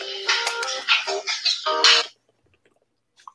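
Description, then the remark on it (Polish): A mobile phone rings with a bright, melodic ringtone, a quick run of tonal notes lasting about two seconds before cutting off into near silence and a faint click. “To u mnie zagrał telefon, pewnie ktoś dzwonił, że chciał.”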